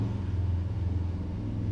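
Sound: motorcycle driving past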